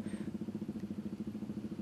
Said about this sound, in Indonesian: Jalan Raya Pantura di Cirebon, Jawa Barat pada sore jelang malam hari ini mulai dipadati kendaraan terutama sepeda motor berplat nomor dari luar Cirebon. Lalu lintas ke arah Jakarta pun juga perlahan mulai padat.